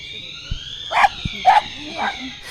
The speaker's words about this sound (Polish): Rozmowę przerwał nam alarm, więc e, razem ze szczekającym towarzyszem e, przeniosłyśmy się trochę dalej od źródła dźwięku.